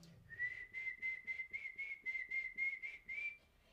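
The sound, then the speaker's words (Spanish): An eerie, ghostly whistle holds one high, steady note for several seconds, pulsing in quick regular throbs before it fades out. It is clear, with no talking. “Luego tenemos un espectro que a mí en lo particular me da muchísimo miedo y es el silbón.”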